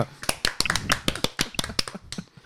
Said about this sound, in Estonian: kõik naeravad, teeme aplausi